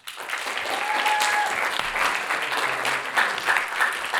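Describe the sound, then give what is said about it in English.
Steady audience applause, a dense wash of many hands clapping at fairly even loudness for about four seconds, with a few faint whistles or tones poking through. “Uh, smattering of applause for that.”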